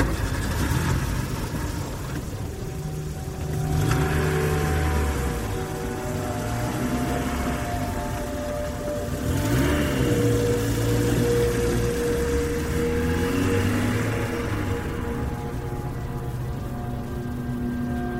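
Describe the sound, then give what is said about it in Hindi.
A car engine hums steadily while driving on a road with no street lights in an accident-prone zone, a low continuous drone with rising and falling tones as it shifts speed, broad road noise filling the background. No one speaks. “अरे don't worry मैं देख रही हूँ ना तुम ड्राइव पर कंसंट्रेट करो ये एक्सीडेंट प्रोन जोन है”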